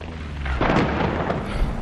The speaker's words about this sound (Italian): Pioggia, sempre pioggia.